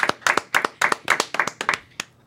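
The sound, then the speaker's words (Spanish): Applause from a small group, sharp overlapping claps in a steady, fairly quick rhythm, bright and moderately loud, with no one talking over it. “Un aplauso a las mujeres que callaron a los hombres.”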